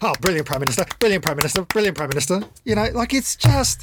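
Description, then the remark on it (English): A pen thrown repeatedly at a notebook thumps against it several times in quick, irregular knocks, partly buried under a person talking steadily into the microphone. “doing a lot of pen oh, thumping.”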